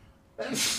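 A single sudden sneeze bursts out after a brief quiet moment, a sharp, breathy, hissing blast that is fairly loud, with no talking around it.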